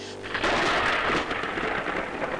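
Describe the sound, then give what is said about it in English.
A loud crack of thunder from a lightning strike bursts into a roaring, crackling rumble that peaks briefly, then settles into a sustained stormy wash with a hint of rain. No voices. “But again, a bolt of lightning comes down, crashing not directly on the ship”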